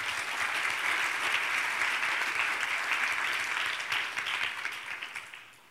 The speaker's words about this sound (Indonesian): Dengan tepuk tangan yang meriah bagi Yesus.